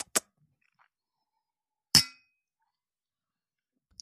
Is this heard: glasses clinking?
yes